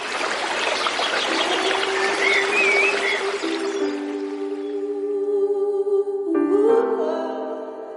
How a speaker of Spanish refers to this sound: La Verea, el podcast que suena desde el filo de un arroyo.